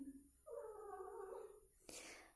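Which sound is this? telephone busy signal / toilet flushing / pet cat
pet cat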